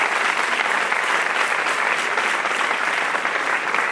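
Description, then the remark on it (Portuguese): An audience applauding steadily, a dense wash of many hands clapping at an even, sustained loudness throughout, with no talk over it. “Se aplaudir o Senhor.”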